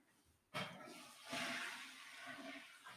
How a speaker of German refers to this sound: Man hört die Klospülung.